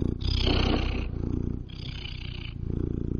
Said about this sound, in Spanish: Hay muchos gatos también alrededor. Está aquí Gunter ronroneando, feliz estrenando nuestra cabina de audio. Está feliz.